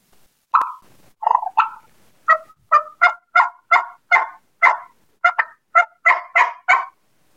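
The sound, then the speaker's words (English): A turkey hen yelp made on a turkey call, a steady run of about fifteen sharp, raspy notes that start spaced out and quicken into a rhythmic series, loud with no talking. “Like if we go to the Merriams though, that time of morning, and they start yelping like that, a lot of times they'll yelp at them.”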